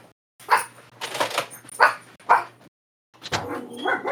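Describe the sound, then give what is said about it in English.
Several dogs locked in a room with the speaker bark and yip in quick bursts, fairly loud, with brief pauses between clusters of barks and an excited, overlapping quality toward the end. “are locked in with me and they're carrying on. Oh god, I better let them out.”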